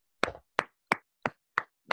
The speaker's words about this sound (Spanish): Aquí solo me queda, solo me queda aplaudir.